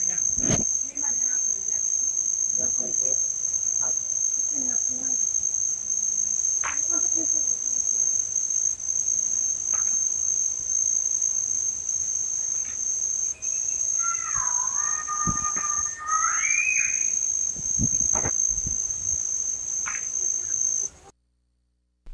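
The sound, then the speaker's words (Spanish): A steady, continuous high-pitched cricket trill fills a night soundscape in Las Tuxtlas, with faint scattered clicks and a brief warbling call midway, no voices present. “Esto que acabamos de escuchar es un ambiente sonoro de los grillos en las tuxclas”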